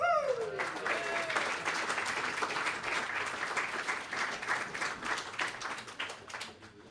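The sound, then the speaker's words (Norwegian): An audience applauds steadily, a dense wash of many hands clapping at a moderate level, with a brief voice at the very start before the clapping takes over and slowly tapers; the applause welcomes a stand-in co-host. “Så gi en, en var, ikke for varm ikke en, Gi en applaus som er litt lavere enn den jeg fikk,”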